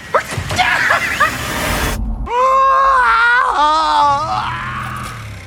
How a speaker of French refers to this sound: trouver le meilleur cri, le meilleur gémissement de l'histoire du cinéma